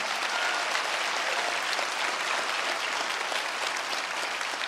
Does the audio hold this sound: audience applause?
yes